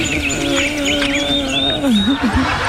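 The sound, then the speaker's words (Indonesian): Birds chirp and trill brightly in a lively, overlapping chorus, with whistled calls rising and falling over a steady outdoor background hum; no one speaks. “Burung berkicau dengan riang gembira, tapi Cinderella justru menangis.”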